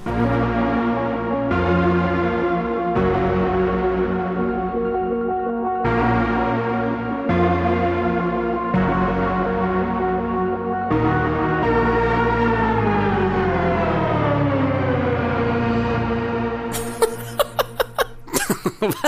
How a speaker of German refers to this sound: Das ist der Soundtrack zu dem Film, den wir heute besprechen, den wir beide sehr mögen. Cube.